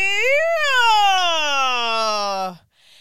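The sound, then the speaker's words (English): A single chanted voice demonstrates the Balinese puppeteer's (dalang) breaking vocal technique, suwara nacha, from the opening incantation, holding one loud, strained vowel for about two and a half seconds, rising in pitch briefly and then sliding slowly downward before cutting off abruptly. “It's called suwara nacha, which means um, breaking, and um, it can be heard in especially the opening incantation.”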